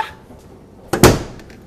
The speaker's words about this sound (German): Jetzt mache ich die Tür zu.